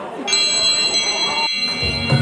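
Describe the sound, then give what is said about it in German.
Glasses clink together in a toast near the end of an evening dinner, two bright ringing strikes whose high tones linger and shimmer, with faint murmuring background noise underneath. “Und jetzt gibt es das Bröschli. Zum Wohl. Zum Wohl. Auf die nächste Morgenshow.”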